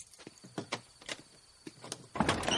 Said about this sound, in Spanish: Jesse abre el coche.